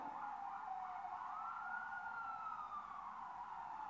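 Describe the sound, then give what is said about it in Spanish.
An ambulance siren wails steadily, its pitch sliding slowly up and then back down, fairly loud throughout with no one talking over it. “Yo sé ya han sido muchas ambulancias.”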